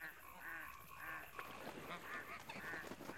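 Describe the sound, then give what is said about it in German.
Geese or ducks honk repeatedly in a steady series of nasal calls at a bird pond in the evening, fairly loud, with overlapping birds and a busy outdoor backdrop. “Abends saßen wir wieder an ihrem Vogelteich.”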